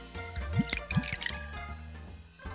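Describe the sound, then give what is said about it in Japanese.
Tenjō Mugen junmai ginjo sake, chilled hard in a refrigerator, glugs from a bottle into a glass in two rising gurgles, clear, followed by a light settling trickle and faint clinks, with no talking. “ちょっと注ぎたいと思います。”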